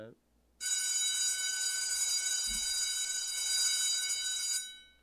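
A bell rings continuously for about four seconds, a steady, loud, high metallic trill with sharp harmonic overtones, starting abruptly and fading out at the end.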